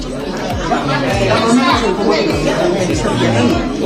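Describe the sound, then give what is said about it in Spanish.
A busy market atmosphere with many overlapping voices chattering steadily in the background while a person at a table counts bundles of money, a continuous crowd murmur with no single clear speaker. “Están en un mercado sobre una mesa, una persona cuenta los fajos de dinero”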